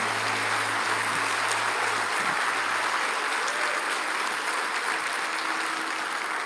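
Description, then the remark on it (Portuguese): Sustained applause from a crowd at a Christian worship service, applauding the Lord, a dense steady clatter of many hands clapping at an even loudness throughout, with a low hum in the background for the first few seconds. “Você anima a aplaudir de novo aquele que é digno? Aplauda ao Senhor, glória a Deus, glória a Deus de todo o seu coração.”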